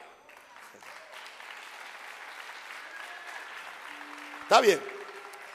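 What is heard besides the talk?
audience applause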